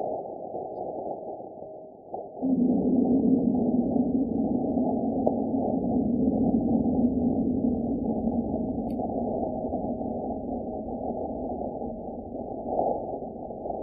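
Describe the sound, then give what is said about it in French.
Muffled, low-pitched wind-like rushing from a Martian seismic recording by the InSight mission, then a sudden thump as the meteorite impact of 24 December 2021 hits, giving way to a loud, steady deep rumble that lingers to the end. “donc là aussi j'avais un son pour l'impact de météorites le 24 décembre 2021 Très joli cadeau de Noël pour euh, les scientifiques de la mission InSight.”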